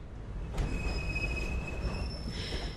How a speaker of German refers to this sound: die Endhaltestelle Kapstadt kommt näher. Schon ist der Tafelberg zu sehen, umhüllt von einer grauen Regenwolke. Die Zugfahrt aus einer vergangenen Ära endet im dortigen Bahnhof.